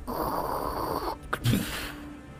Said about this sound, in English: As the stone door to the tower shuts.